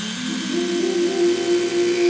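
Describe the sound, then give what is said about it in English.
A steady electric toothbrush hum with a strong, sustained buzzing tone, smeared by heavy reverb into a continuous wash of sound, fairly loud and unbroken throughout with no speech. “And then I put I put the the I put the the vibrating over top of it so that you would know that it was still vibrating, but the that sound that wash is just uh, an electric toothbrush with um, reverb on it.”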